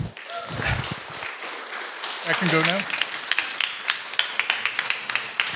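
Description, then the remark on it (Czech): A crowd applauds to welcome a guest musician, a drummer, with dense, steady clapping that thins out toward the end into a few scattered, rhythmic claps. A voice speaks briefly over the applause partway through. “Takže ho přivítejme potleskem.”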